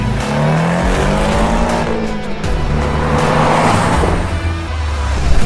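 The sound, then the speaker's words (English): A car engine revs and pulls hard as it accelerates while driving, the loud, steady drone rising in pitch with a brief dip in the middle, with no voices. “My car's gonna feel slow as balls after this, I'll tell you that.”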